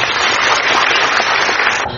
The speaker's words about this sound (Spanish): Fuerte aplauso para todos ustedes, por favor.